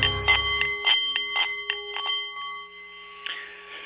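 A Nepalese meditation bowl rings with a steady, shimmering tone that sustains throughout, while a series of light, quick taps sound over it before the ringing slowly settles.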